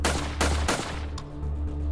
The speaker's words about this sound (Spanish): En un arranque de desesperación, empezaron los tiros desde dentro del departamento hacia afuera. La policía respondió.